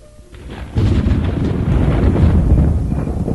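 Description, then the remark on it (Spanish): Thunder rolls through a torrential rainstorm, rising suddenly from a quieter opening into a loud, sustained low rumble over a dense wash of heavy rain, with no voices. “Un día comenzó a caer una lluvia torrencial.”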